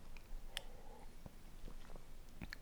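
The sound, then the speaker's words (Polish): Someone takes a quiet sip of water, with a few soft wet mouth clicks and a gulp, and no talking. “Przepraszam, aż musiałam tu przepić łykiem wody.”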